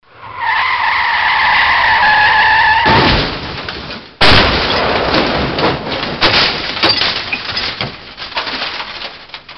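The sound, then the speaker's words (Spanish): A car's tires squeal loudly in a long, rising skid, then give way to a rush of noise and an abrupt heavy jolt, followed by crunching and rattling that gradually settles. No one speaks. “Viene un coche.”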